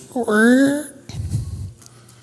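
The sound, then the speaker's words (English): A voice mimics a squeaking door with one drawn-out, rising squeak lasting under a second, loud, followed by low muffled rumbling and shuffling. “And so finally, he gets up, takes that little thing of oil, goes over, pours it on the door, and he sits there in silence for the rest of the time because the door no longer squeaks.”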